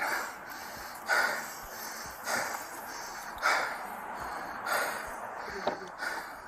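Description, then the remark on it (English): Heavy, labored breathing of a man out of shape after chasing, with about six loud rasping breaths in a steady rhythm roughly a second apart. No one speaks. “Listen how hard he breathing, man.”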